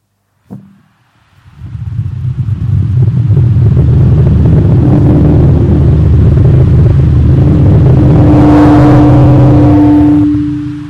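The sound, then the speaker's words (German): After a brief knock, a loud, deep rushing roar swells up and holds steady, like a powerful wind or engine, with a rising whistling tone emerging near the end. “Plötzlich ist ein Rauschen über die ganze Stadt hineingebrochen.”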